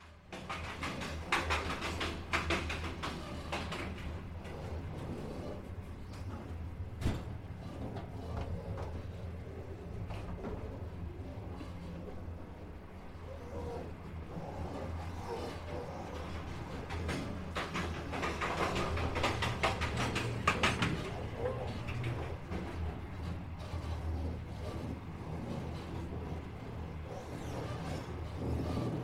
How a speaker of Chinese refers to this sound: 片段一：跨过鸭绿江的火车。